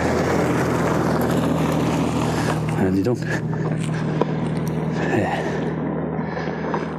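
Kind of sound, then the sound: vehicle, car driving past outside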